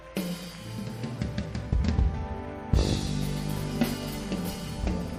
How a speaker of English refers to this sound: Let's go ahead and put our hands together. Yes. Let's do it better unto the Lord. Somebody celebrate Jesus. Let's celebrate Jesus with a mighty clap.